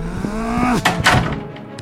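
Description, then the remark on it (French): A door creaks briefly, then slams shut with a loud thud as a man walks out, followed by a short second knock and fading rattle. “le visage rouge comme un piment, sort en claquant la porte.”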